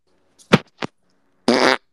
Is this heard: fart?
yes